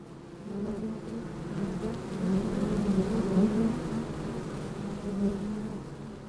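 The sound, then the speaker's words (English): A dense, steady drone of many bees buzzing together at a hive on the roof of Bailey Hall, a continuous low hum that swells slightly in loudness and never pauses, with no voices present. “their Twitter at MSU Bailey Bees, or tune into their Bee live stream, where you can watch the hive on the roof of Bailey Hall.”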